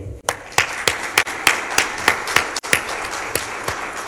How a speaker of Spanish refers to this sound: Un aplauso para mi amigo.